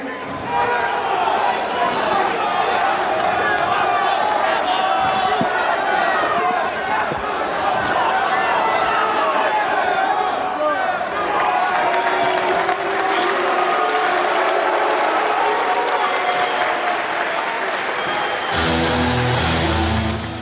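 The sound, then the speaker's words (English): A huge arena crowd of wrestling fans boos loudly and steadily as two wrestlers shake hands, a dense wall of jeering voices mixed with clapping and shouts that keeps going for the whole stretch before cutting off near the end. “Fans booing the good sportsmanship.”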